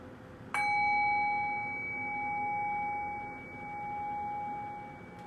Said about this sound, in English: Now I'll ring the bell Rest your attention and awareness on the sound of the bell. Allow the decay of the bell to guide your mind into silent space.